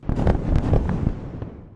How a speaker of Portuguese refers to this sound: Os militares israelitas disseram que um complexo de inteligência do Hamas estava entre os alvos. Imagens captaram vários flashes que iluminavam edifícios no enclave costeiro, enquanto o som de explosões estrondeava pela cidade.